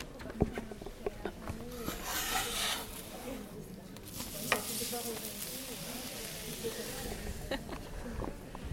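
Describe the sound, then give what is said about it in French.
A crêpe sizzles steadily on a hot griddle at the crêperie of the Biban Bazar festival. A continuous hiss is broken by occasional scrapes and taps, with faint voices murmuring in the background. “Je me dirige maintenant vers la crêperie. Écoute ce doux bruit.”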